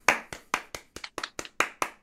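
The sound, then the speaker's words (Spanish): Hand clapping: about ten crisp, evenly spaced claps in a steady quick rhythm, fairly loud, with no voices over them, applauding a guest being introduced. “un aplauso.”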